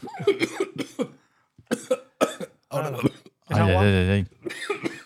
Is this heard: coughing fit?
yes